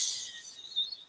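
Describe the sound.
A voice makes a soft, breathy hiss, one brief sustained 'tsh' that trails off, imitating light rain sizzling on fresh lava at a volcano as steam rises. It is fairly quiet, with no other sounds.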